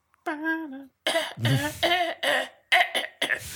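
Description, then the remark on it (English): A person coughs repeatedly, trying to cough on pitch: a quick run of about seven strained, voiced coughs with a sung, tonal quality, preceded by a short held vocal note. “us be trying to cough on pitch.”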